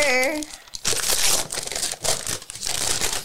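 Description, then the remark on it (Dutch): Gift wrapping paper around a present, a vegetarian barbecue book, is ripped and crinkled open in a loud, continuous rustling burst lasting a few seconds, with a brief voice at the very start. “Mag het open scheuren of die allemaal niet netjes te blijven.”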